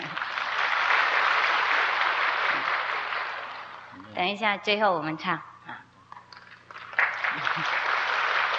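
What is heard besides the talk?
audience clapping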